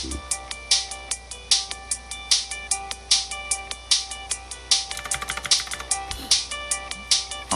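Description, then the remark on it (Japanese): Rapid, loud clicking of keys on a gaming keyboard, in an uneven typing rhythm with a quick burst in the middle. No one speaks. “これね、なんでカタカタ言うかって言ったらね、あのゲーミングキーボード、ゲームするためのあのキーボードなんで音がでかいんですよ。”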